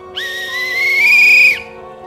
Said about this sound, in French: Un sifflet.